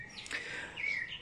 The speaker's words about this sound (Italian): Ah, senti gli uccellini, adesso è smesso di piovere